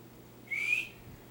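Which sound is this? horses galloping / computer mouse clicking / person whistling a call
person whistling a call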